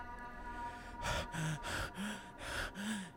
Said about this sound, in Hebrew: התנשמתי כששחררתי את הנשימה שלי שלא ידעתי שעצרתי.